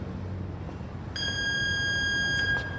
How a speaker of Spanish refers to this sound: No es eso, tiene una bala en el cuerpo. ¿Adentro del cuerpo? Sí. Si suena el detector...